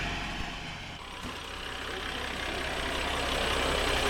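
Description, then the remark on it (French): Two fire truck engines idle in Arsac, a steady low diesel rumble with a broad hiss above it, holding constant and growing slightly louder toward the end. “Il y a deux camions de pompiers.”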